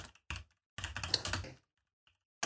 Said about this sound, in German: Ich schaue nach. Klick, klick, klick, klick. Ich hab das in meiner Playlist.